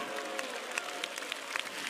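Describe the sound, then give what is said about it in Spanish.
An audience applauds God steadily, many hands clapping at once in a dense, even crackle with a few sharper claps standing out. No voices are heard over it. “Yo creo que usted le puede dar un aplauso a Dios en esta hora.”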